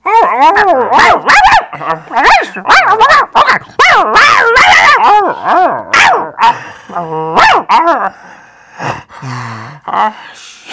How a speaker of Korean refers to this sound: 이번에 다르게 생긴 개가 나무 밑에 있는 거라. 지경이가 그 암컷개한테 막 잔소리 듣는 그런 느낌을 받았거든요.